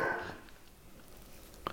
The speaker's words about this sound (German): Dein Hund bellt. Okay. Mein Hund, hat man das doll gehört? ist ja, so eine Tür dazwischen.